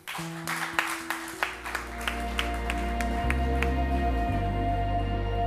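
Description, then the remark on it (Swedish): An audience at a Worship Nights church service breaks into applause for those who received Jesus that day, scattered claps at first building into a steady, moderately loud ovation, with sustained keyboard chords humming underneath. “Ska vi applådera himlen för de som tog emot Jesus idag?”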